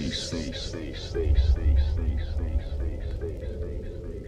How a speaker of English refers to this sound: And listen to this fat bass that will send the blood coursing through your veins.